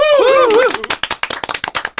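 A drawn-out, pitch-wavering vocal cheer gives way to a quick, uneven burst of clapping from a few people, sharp hand claps rattling on for over a second as guests are sent off.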